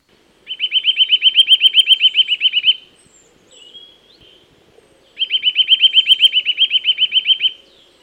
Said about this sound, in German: Hier hört ihr den Gesang eines Kleibers.